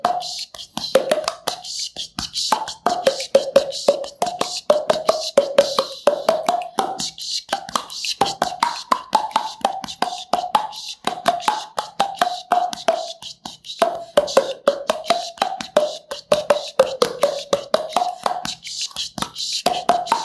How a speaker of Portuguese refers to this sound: Então a gente vai só fazer um exemplo agora com a melodia, não mais na voz, e sim em, em, no instrumento percussivo, né, do som que a gente chama de poc-poc. E é isso, vai ser o, o Peixinhos, Peixinhos do Mar.